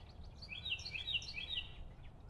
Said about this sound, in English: I belong to these tufted titmice, and this downy woodpecker, and this cardinal, and this spruce tree, and I live in the valley below Skytop, one of the easternmost fringes of the Appalachian Mountains in the south central Pennsylvania region.